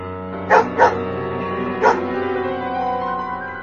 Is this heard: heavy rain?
no